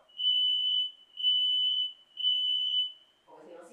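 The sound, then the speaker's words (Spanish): A smoke alarm, set off by a cooking smell, sounds three loud, piercing, steady tones in quick succession, each lasting under a second, before a person starts talking at the end. “Se la alarma porque huele”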